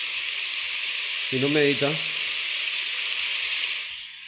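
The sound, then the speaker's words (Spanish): A steady, unbroken hiss of rain sound played from a meditation app runs throughout at an even level, and a short burst of speech rises briefly over it partway through. “Entonces, por ejemplo, con sonido de la lluvia.”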